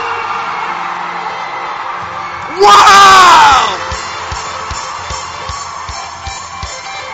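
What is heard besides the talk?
audience screaming and cheering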